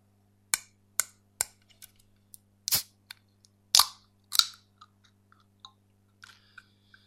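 Three sharp, evenly spaced knocks on a drink can containing a ginseng drink, followed by scattered small clicks and a few louder, crackling metallic bursts. No one speaks.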